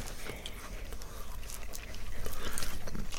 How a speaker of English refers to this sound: Like, if you kind of chew it round a little bit, you get um, kind of the shortbread taste, but yeah, probably not not the biggest thumbs up from me.